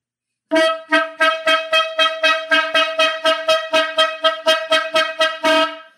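A long, loud horn blast drones for about five seconds, its brassy tone pulsing rhythmically in quick, regular surges before cutting off, with no voices or other sounds around it.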